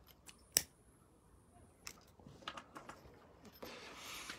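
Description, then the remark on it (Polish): A sharp click, then a few small scratchy clicks and a soft rushing hiss as a lighter is struck and its flame catches to light a cigarette. It is quiet overall, with no talking. “nadawanie bez papierosa jest, y, że tak powiem, nawet na Facebooku jest y, deklase w moim przypadku, że tak powiem.”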